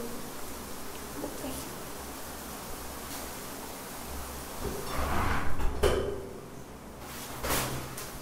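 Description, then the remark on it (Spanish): A window slides shut with a scraping rush and a sharp knock partway through, over a steady hiss of running water in the background; the window is being closed so the water is heard less. “no sé si quieras que le cierre la ventana para que no se escuche tanto la, el agua”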